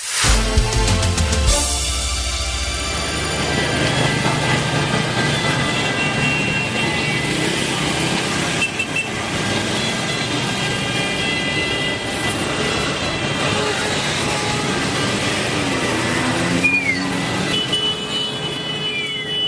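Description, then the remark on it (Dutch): A dense, continuous roar of busy street traffic in southern Italy with many overlapping car horns honking and blaring at once, loud, with no break throughout. “Maar zo klinkt verkeer in Nederland met al dit getoeter toch nooit?”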